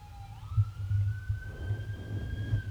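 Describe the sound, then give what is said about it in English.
An ambulance siren wails as the ambulance approaches, its pitch sweeping up and holding steady, fairly prominent over a low, rumbling traffic and engine noise, with a fire truck also responding; no one speaks. “Up oh, and here comes the ambulance.”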